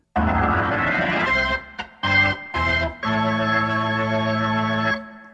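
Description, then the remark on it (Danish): A short instrumental radio separator jingle plays alone: a bright, dense musical phrase, two punchy stabs, then a sustained closing major chord that rings out and stops cleanly. No voices. “kunne lave nogle hammernål skillere med Radio 4-temaet. Og det har han gjort.”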